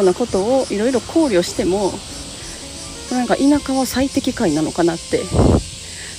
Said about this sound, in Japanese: めっちゃセミ鳴いてますね。なんかに、まあ、目の前ですごい大きな木があって多分ここの木にもう何百匹っていうセミが住んでるんだと思います